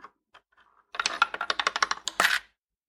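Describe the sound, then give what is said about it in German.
A coin drops into a dinosaur piggy bank held up to the microphone, clinking and rattling in a quick burst of metallic jingles before settling, preceded by a few faint handling clicks. “Dino hoch zum Mikrofon, lass da mal die Münze rein.”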